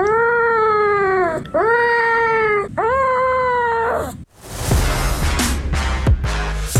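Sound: cat meowing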